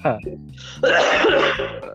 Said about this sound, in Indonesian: lu kalau batuk jauh-jauh apa sih